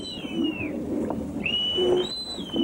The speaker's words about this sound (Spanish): La lección de los silbatos se pone en práctica en cuanto se izan las velas.